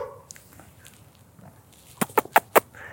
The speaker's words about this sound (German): Jetzt haben wir auch noch ein paar Hühner, die oh, da ein bisschen oh, Lärm machen. Ja die sehr interessiert zu uns kommen.